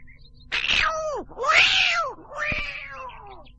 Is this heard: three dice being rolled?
no